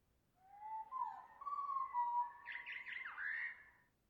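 bird calling

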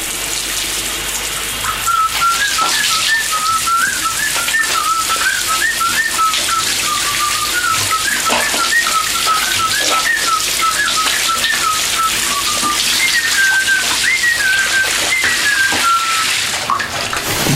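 shower running

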